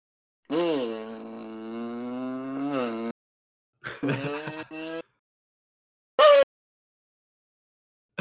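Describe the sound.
A kazoo buzzes in imitation of a race car: a long, steady droning buzz that sweeps upward at the end, then a shorter buzzy burst and a quick high-pitched blip.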